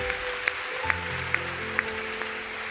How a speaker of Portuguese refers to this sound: Pode aplaudir Jesus.